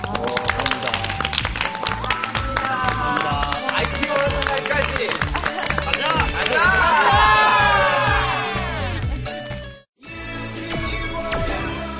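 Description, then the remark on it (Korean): A studio audience applauds steadily in thanks to two special guests, both company heads, dense clapping filling the whole clip, with whoops and shouted cheers swelling partway through before a brief break and more clapping. “두 대표님께 정말 깊은 감사의 박수 인사드립니다.”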